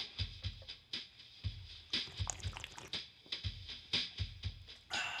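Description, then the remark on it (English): Wet, squishy liquid sounds of beer being swished around in a mouth to taste it, in a quick irregular series of sloshes and gurgles with no talking. “That was me moving it around in my mouth so I could taste all of it.”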